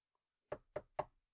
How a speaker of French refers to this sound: Le serviteur se dépêche d'aller frapper à la porte du troisième invité.